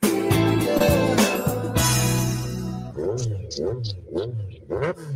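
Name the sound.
motorcycle engine revving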